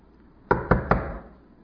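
Three firm knocks on a wooden door in quick, even succession, close and fairly loud, with a short resonant decay after the last one and no voices.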